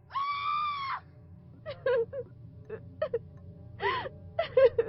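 A woman lets out one long, high-pitched scream, then breaks into choppy, gasping sobs and whimpers, with another short anguished wail near the end.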